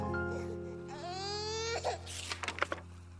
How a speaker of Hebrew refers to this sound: תינוקת צורחת בכל הכוח, חזרנו להפליג לעבר חיפה.